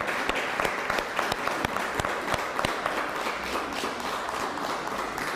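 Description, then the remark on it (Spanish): A crowd applauds Venezuela and Colombia steadily for several seconds, a dense wash of many hands clapping with a few sharper individual claps standing out, loud and sustained without any talking. “Un fuerte aplauso a Venezuela y Colombia.”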